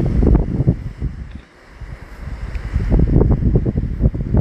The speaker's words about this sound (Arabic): وانت في هذه الوضعية تقدر تغمض عينيك من المستحسن انك تغمض عينيك وتركز على صوت الموج اللي كاين في الخلفية تاع هاد البودكاست